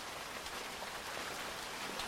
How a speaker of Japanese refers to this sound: それにしても雨やみそうにないなそうですねこのまま雨が止まなければいいのにって思うことってないえなんか気持ちが落ち着くなって思って